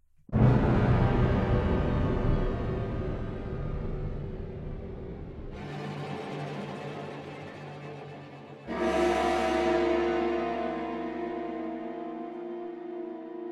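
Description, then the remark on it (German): Dense, sustained orchestral tutti suspense patterns from a sample library in three successive blocks, each entering abruptly with a full, dark low end and rich upper harmonics, creating a tense, brooding texture with no voices. “Und jetzt haben wir noch mehr Tutti Suspenses.”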